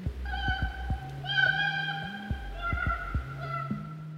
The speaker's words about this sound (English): Yeah, this is what a koala can sound like.